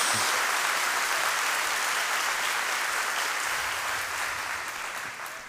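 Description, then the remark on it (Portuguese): Sustained applause from a large audience, a dense, steady wash of clapping that stays loud throughout and eases off slightly toward the end, with no voices standing out. “mais alta as suas palmas, mais alta em nome de Jesus.”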